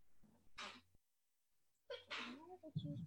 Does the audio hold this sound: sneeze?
yes